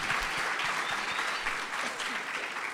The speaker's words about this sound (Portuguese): Glória a Deus, né, gente? Mais uma salva de palmas para eles.